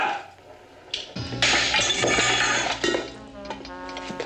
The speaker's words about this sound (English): Smashed his cast against the uh, pole holding up one of the tyres, and um, yeah, we're free of that.